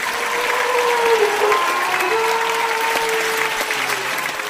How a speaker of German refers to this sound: Dann beginnt das monstermäßigste Freudengeheul, das jemals auf Flux zu hören war.